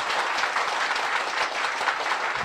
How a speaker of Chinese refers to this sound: 让我们的热烈的掌声欢迎一南教授。